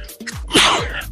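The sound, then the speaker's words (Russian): A man sneezes once during a conversation, suddenly and fairly loud, with a sharp inhaled buildup followed by an explosive burst of breathy noise that trails off quickly. “Что-то я чихнул тут нечаянно.”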